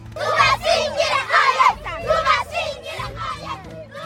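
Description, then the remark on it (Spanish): A crowd of older children shouting and yelling together at a school, a loud, continuous chorus of overlapping voices rising and falling in bursts with no clear individual speech. “Sí, son niños más mayores.”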